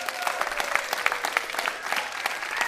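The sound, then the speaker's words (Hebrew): A crowd of children, parents and families in a hall at Beit Avichai in Jerusalem, at a Book Week show, claps steadily: dense overlapping handclaps forming a continuous, fairly loud wash with no voices standing out. “אנחנו נמצאים לא באולפן הרגיל שלנו, אלא נסענו עם הכרכרה והגענו עד לבית אביחי בירושלים, ואנחנו נמצאים פה באולם עם ילדים, עם הורים, עם משפחות, תמחאו מחיאות כפיים שנשמע אתכם.”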